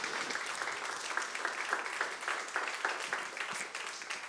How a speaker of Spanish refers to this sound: Démosle un aplauso bien fuerte a Dios.